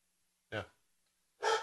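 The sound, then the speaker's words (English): A dog, Ollie, barks twice, short sharp yaps with a pause of about a second between them and silence otherwise. “Dog's going crazy.”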